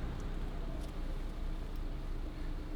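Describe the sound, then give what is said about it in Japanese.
A car reverses the wrong way down a one-way street, its engine a steady low rumble that stays even for the whole stretch, with no voices over it. “この車ひでえな一方通行のところバックで逆走逆走してきましたよ ひどいですねあの一方通行バックだったら無視してないだろうっていうそういう理屈にはならないと思うんですけどねあのバックもしちゃいけないと思うんですけどね一方通行は。”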